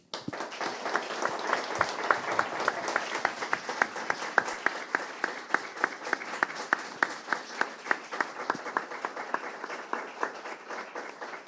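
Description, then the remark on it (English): An audience at a book reading applauds the reader steadily for several seconds, a dense, even patter of many hands clapping with a few sharper individual claps standing out, sustained at a consistent moderate level throughout. “Please, can we give her one more round of applause?”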